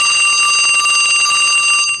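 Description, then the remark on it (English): A telephone rings loudly in the Prime Minister's hotel room as a press conference is being prepared, its bell trilling rapidly and continuously throughout without a pause. No one speaks. “receives a phone call just as they are preparing for the press conference.”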